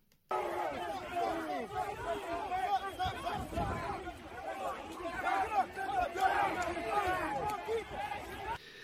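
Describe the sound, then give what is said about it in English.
A dense protest crowd near a police line chatters and shouts all at once, while some people try to keep the crowd back from the police and calm it down; a steady wall of overlapping voices with occasional louder calls rising out of the din for the full length. “But what I want to point out is while he's the loudest person, the MAGA patriots are trying to keep the crowd back from the police. They're trying to calm down the crowd and they're protecting the police.”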